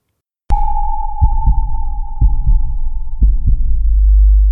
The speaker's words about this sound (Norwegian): Ja, hvis du syns sorte hull er litt skumle, så kanskje man kan tenke at dette er sånn de høres ut. Ja, Ok, stilig. Så det er rett og slett at uh, vi, kan, vi, kan, rett og slett høre nøyaktig hvordan disse to sorte hullene smelter sammen til én.